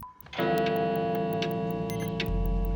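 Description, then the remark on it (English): An old grandfather clock that chimes every 30 minutes ticks steadily at an even pace, its crisp ticks sitting over a loud, sustained ringing tone that swells in after a brief quiet start. No one speaks. “There's an old grandfather clock that chimes every 30 minutes and an upright piano.”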